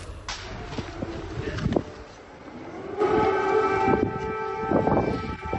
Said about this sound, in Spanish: Esas sirenas antiaéreas de Kiev, Ucrania, le sonaron al presidente de Estados Unidos, Joe Biden, justo cuando estaba sorpresivamente dispuesto a reunirse con el presidente Volodymyr Zelensky.